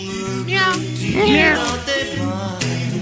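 A new kitten meows in a few high, wavering cries, the loudest rising and falling midway through, over a steady low background drone.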